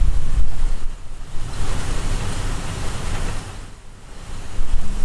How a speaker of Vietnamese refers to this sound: Thì nếu như những cái đoạn mình im lặng thì các bạn có thể nghe thấy tiếng mưa ngoài cửa sổ. Tiếng mưa là như thế này này.